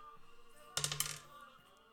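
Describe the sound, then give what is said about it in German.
A die, rolled during a game to decide the number of moves per turn, clatters across a hard surface in a short burst of quick, bright clicks that bounce and settle within about half a second, moderately loud, with no talking. “Okay, wir würfeln jetzt.”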